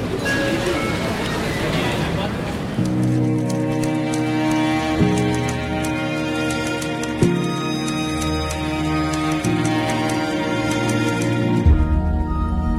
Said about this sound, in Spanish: Estamos escuchando parte del nuevo videojuego que se va a realizar, uno inspirado en el universo de Federico García Lorca que se llama Aurora Da un Poet, una iniciativa que coincide con el 125 aniversario del nacimiento de este poeta universal.